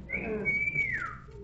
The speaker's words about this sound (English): Uh, that whistle, you mean? Yes, it sounded as though it right here in this house. I think it came from the cellar.